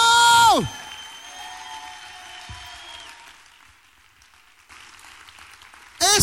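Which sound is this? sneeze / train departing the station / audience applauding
audience applauding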